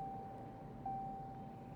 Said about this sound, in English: What's that? It, Uh-oh. Is that Ed's car making all that noise? Yeah, it sounds like his axle's cashed.